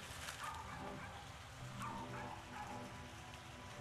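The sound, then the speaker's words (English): A small dog yaps a few times in the background, short sharp barks spaced irregularly and faint beneath a steady, rain-like hiss of background noise; the dog has been barking incessantly since early morning, and it is almost noon. “on the dog barking in the background.”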